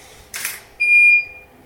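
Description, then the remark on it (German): A camera takes a photo of someone turning around so their hair flies: a short, hissy shutter burst, followed a moment later by a clear, high-pitched electronic beep that lingers briefly and fades. No one speaks. “Willst du ein, wegen der Haare ein Haarfliegefoto haben mit umdrehen?”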